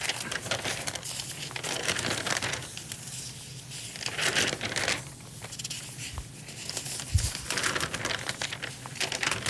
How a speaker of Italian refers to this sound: è il Corriere della Sera che sto sfogliando nervosamente